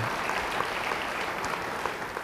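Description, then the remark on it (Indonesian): A church audience claps together for God during a sermon in a dense, steady wash of applause that holds an even level for a couple of seconds, with no voices standing out. “Beri tepuk tangan bagi Tuhan.”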